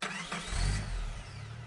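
A car engine cranks briefly and then catches, settling into a deep, steady rumble. No voices, just the motor turning over and running.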